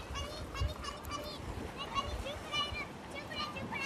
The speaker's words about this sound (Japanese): 今はですね、子供たちと、めいっ子おいっ子と、海に来ております。さざ波、波波の音が聞こえますでしょうか